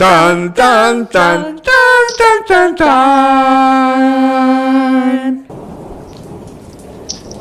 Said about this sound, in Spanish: entrado, han entrado los truenos y los relámpagos y todo.